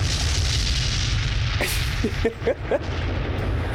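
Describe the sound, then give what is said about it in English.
A loud explosion sound effect: a deep, sustained rumbling roar with a few sharp crackling pops partway through, with no voices. “this explosion right here.”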